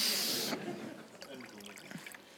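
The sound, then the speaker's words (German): A short burst of vinegar pouring out with a bright, hissing splash, fading after half a second into softer trickling beneath a speaking voice. “Soll ich es mal ausgießen?”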